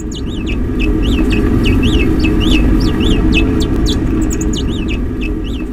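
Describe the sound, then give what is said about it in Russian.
Naked mole-rats of one colony greeting each other in their colony's own way: a rapid series of short, high, rising-and-falling squeaks, some overlapping as if several animals call at once, over a steady low rumble of background noise. “так приветствуют друг друга землекопы из колонии дотракийцев”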